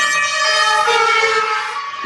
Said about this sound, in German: Sind das jetzt äh, die Krankenwagen, die dich schon abholen